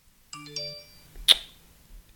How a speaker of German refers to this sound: Was ist bei dir da los? Benachrichtigungen. Ständig.